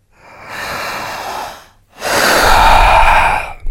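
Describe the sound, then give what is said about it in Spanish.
Two loud, deep, forceful breaths in a row as part of a breathing exercise: a long noisy inhale followed by an even stronger, rushing exhale, with no talking. “¿Cómo podemos describir esta respiración? Fuerte. Descríbalo usted. Profunda. Larga.”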